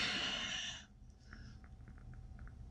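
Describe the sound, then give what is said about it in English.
A breathy yawn rushes out for under a second and is abruptly cut short, leaving near silence with a few faint, soft ticks afterward. “I yawned again. I tried to cut it off, but I don't think I moved fast enough.”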